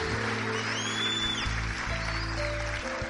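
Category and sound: crowd, audience applause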